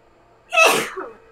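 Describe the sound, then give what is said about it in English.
A single sharp, loud sneeze bursts out, a quick explosive blast followed by a brief trailing exhale, with quiet before and after. “Bless you.”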